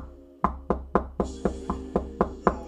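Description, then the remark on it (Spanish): Repeated knocking on a door, about eight firm knocks in a steady rhythm, clear with a low hum underneath and no voices. “Porque tenías una visita, discúlpame, o alguien quería ir a visitarte y te sigue golpeando.”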